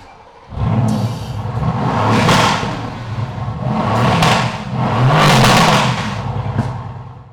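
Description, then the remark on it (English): A car on air suspension cranks and fires up, a brief airy hiss follows as the airbags raise the car, then a deep rumbling idle with three loud exhaust revs rising and falling. No one speaks. “When I start it, the airbags will raise the car up and we'll hear the exhaust.”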